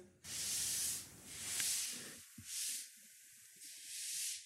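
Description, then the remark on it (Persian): Loud rustling in the undergrowth comes in four long, breathy bursts with short pauses between them, like something brushing through dry leaves and brush. No one speaks. “خشخش میشنوی این صدا رو که میشنوی خب ممکنه یکی باشه که داره میاد بخورتت دیگه مضطرب میشی”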